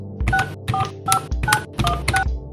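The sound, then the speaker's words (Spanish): A rapid series of about six or seven telephone keypad beeps, each a short dual-tone press, dialed in quick succession to call reception, with no one speaking. “Como pude, me enrollé una toalla del baño en la cintura, marqué a recepción”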